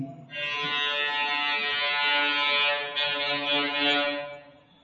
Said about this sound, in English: the reality of, any, of anything, which has just been proved by the loud sound of a horn. That's their comment on Nirvisheshan. That's our comment on shun, Nirvisheshan Shunyavada. Sounds like kind of noise that comes out of your backside.